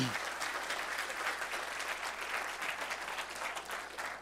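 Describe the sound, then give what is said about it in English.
Sustained applause from a sizable audience at a church in Truckee for those who made a choice for the Lord, a dense, steady crackle of many hands clapping at once, loud, continuing without pause and with no talking over it. “Now, I don't, like I said, I don't want to put him on the spot, but can you just give a round of applause for those who made a, a choice for the Lord?”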